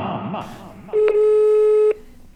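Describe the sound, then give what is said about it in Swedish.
A single steady telephone ringing tone sounds for about a second, loud, as if heard through a phone earpiece, during a phone call to the speaker's mother, following some brief muffled talking. “Jag ringde henne igår och det lät så här.”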